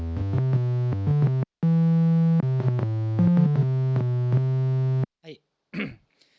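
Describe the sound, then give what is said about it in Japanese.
A buzzy analog synthesizer plays a steady run of sustained notes that step between pitches for about five seconds while its filter cutoff is adjusted to cut the high frequencies, its bright tone slightly muted on top, before a short spoken voice follows. “でまああとはちょっとカットオフをいじって、まあ、高い音は削ってしまって。”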